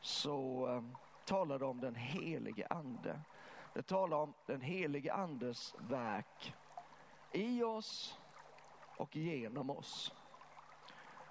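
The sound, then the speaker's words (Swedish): Water babbles softly and steadily in the background while a man talks continuously in the foreground, the gentle trickling sound staying low and partly masked by his voice. “Jag vet inte om du hör det, men här i bakgrunden så pålar det lite.”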